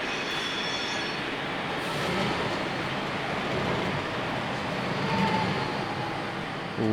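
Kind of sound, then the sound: vehicle, metro train ambience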